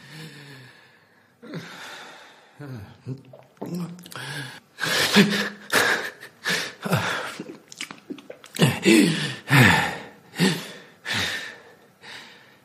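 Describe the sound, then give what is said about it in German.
Loud, strained breathing, a rapid series of harsh, rasping inhales and exhales with a gurgling, wheezy edge, continuing for several seconds. “Lautstarkes, angestrengtes Atmen ist gekennzeichnet durch Geräusche beim Ein- und Ausatmen, die laut gluckernd oder pfeifend sein können und anstrengend zu sein scheinen.”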